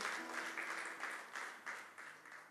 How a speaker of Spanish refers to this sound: Dele un aplauso a Dios que siempre es bueno glorificarlo.